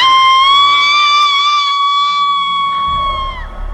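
A woman screams loudly and without a break, one long, high, steady shriek that holds for several seconds before a low rumble rises at the very end.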